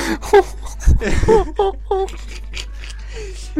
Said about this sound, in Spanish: pues esos sonidos de monos.